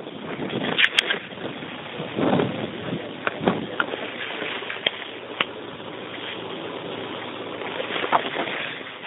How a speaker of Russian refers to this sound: Ну, извините, я сейчас попробую на ветру закурить.